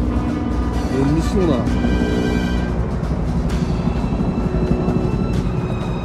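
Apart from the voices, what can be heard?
helicopter flying overhead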